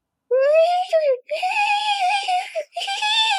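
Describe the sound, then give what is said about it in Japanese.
A voice imitates the whining cry of an unseen animal at first taken for a dog and later thought to be a turkey, in three loud, drawn-out wails with short breaks between them. The high, wavering pitch makes it sound much like a crying baby. “なんかね、最初家、犬じゃないと思ったの。”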